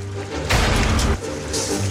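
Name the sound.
shower running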